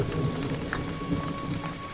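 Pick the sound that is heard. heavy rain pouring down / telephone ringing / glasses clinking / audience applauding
heavy rain pouring down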